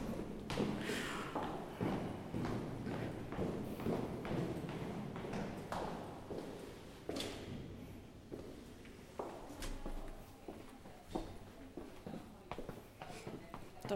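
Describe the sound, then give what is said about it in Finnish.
Hard-soled footsteps click at a steady walking pace along an echoing corridor in a university building, each step ringing briefly off the walls, with faint voices in the background. “sitten on pienempiä seminaarihuoneita ja sitten on tosi paljon tätä käytävätilaa, joka kaikuu ja mikä maksaa hirveästi.”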